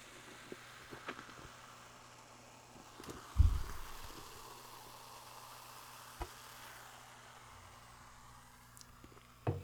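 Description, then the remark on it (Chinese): Soft, continuous fizzing hiss of Coca-Cola bubbling in a cup, with a thud of the glass around the middle and a few faint clicks and taps scattered throughout. “听听看这个气泡声音。”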